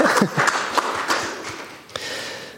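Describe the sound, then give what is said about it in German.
An audience applauds, a dense steady patter of many hands clapping at once, fairly loud throughout and briefly dipping near the end before continuing. “Ja, dieses Applaus gestattet.”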